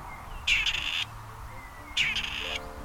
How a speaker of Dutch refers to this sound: En dat was het moment waarop die dan een bandje startte. Hè? Dat ga ik nu ook doen. De patrijs. De patrijs, dat is hem. Grijs met bruine veertjes. Wat is het een mooie vogel.